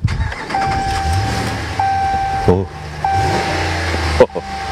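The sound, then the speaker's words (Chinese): A 5.7 Hemi V8 engine starts and settles into a steady, deep idle rumble, with a couple of brief sharper surges along the way and a short exclamation from a voice. “接下来呢，我们将这个发动机打着，来听听它这个五点七 Hemi 的声音。”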